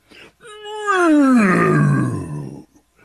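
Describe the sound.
A single loud lion roar swells up and then slides downward in pitch into a rough, rumbling growl, lasting about two seconds with brief faint sounds before and after.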